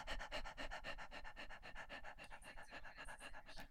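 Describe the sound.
A person pants rapidly and steadily like a small dog as a breathing exercise to wake up the diaphragm, quick short breaths in and out in an even rhythm, fairly loud, with no talking.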